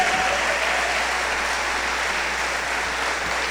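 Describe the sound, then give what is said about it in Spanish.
Steady audience applause, a dense wash of many hands clapping at an even, sustained loudness throughout, with no voices rising above it. “Entonces quiero decirles hoy, ese aplauso debería ser con más fuerza.”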